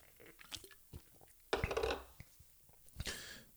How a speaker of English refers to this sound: and I'll be doing the beer of the moment, but, um, and that's what today is all about. Yo, know, Pinkman style, I'm breaking bad. Let me just take a real quick sip.